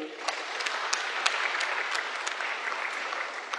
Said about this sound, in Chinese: 掌声有请。